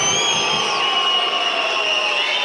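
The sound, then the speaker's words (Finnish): At an ice hockey game, the Rouen arena crowd whistles loudly and continuously as Ratinen attempts a penalty shot: many shrill, sustained high-pitched tones layered over a dense roar of crowd noise, with no break for the full few seconds. “2 plus 2 minuuttia ja Ratinen rankkaria yrittämään Ruan yleisön viheltäessä.”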